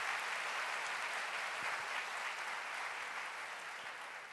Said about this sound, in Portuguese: E diante de todos vocês, eu não quero fazer nada antes de honrar a vida, o ministério e a pessoa do pastor Wander Gomes. Eu volto fazer isso. Pode aplaudir.